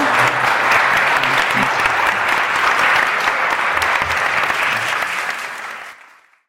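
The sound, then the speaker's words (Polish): An audience claps for the guests at the end of a discussion event, in a dense, sustained wash of applause that holds for several seconds before tapering off and fading out at the end. “Brawa dla nich.”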